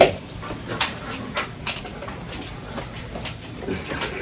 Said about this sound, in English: We do have dogs, and sometimes they like to let us know what's going on.